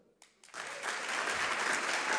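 A crowd breaks into applause after a couple of scattered claps, building quickly into dense, sustained clapping from many hands that continues steadily to the end, as an audience practices clapping at the preacher's urging.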